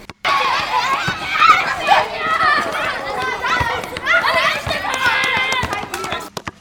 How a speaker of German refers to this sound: Also gehen wir auf den Schulhof. Dort ist es sehr laut.